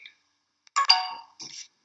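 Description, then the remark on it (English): A short electronic ringtone chimes from a computer that makes phone calls, a bright two-part tonal burst with harmonic ringing, followed by a brief higher trill; no one speaks over it. “Is that your text machine? It's my computer that makes phone calls.”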